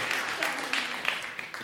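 A live audience applauds with a steady, dense patter of many hands clapping, at moderate volume, with no voices standing out.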